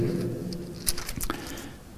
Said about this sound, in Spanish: Uh, cómo mastica, ¿verdad? Sí, cómo masticó el dinosaurio, tremendo. ¿Se imaginan esos dientes?